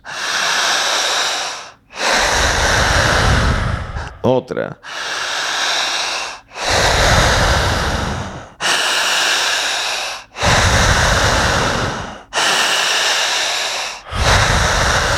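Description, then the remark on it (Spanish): Forceful, repetitive breathing done as a guided breathing exercise: about eight loud breaths in a steady rhythm, each a rushing burst lasting over a second, with a brief spoken word squeezed in midway. “Al ir respirando de esta forma”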